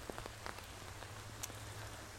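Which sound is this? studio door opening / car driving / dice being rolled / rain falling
rain falling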